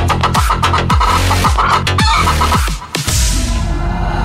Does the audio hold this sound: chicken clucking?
yes